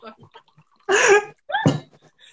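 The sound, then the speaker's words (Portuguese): Water pours into a glass in two quick, splashy bursts, the gurgle rising in pitch as it fills, with faint murmurs and small sounds before and after. “Vou botar água, gente.”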